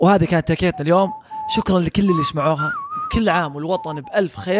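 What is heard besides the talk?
person whistling a tune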